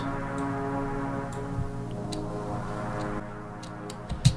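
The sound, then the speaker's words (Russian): A simple synth melody of just two sustained notes, made with the Massive and Nexus synth plugins, alternating slowly, steady and moderately loud, with a few faint clicks near the end and no voices. “Э, по мелодии я использовал массив и Nexus.”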